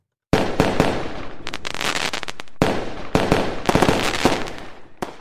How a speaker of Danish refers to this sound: Hvordan skal man afslutte det? Det gør man naturligvis med en ordentlig raket.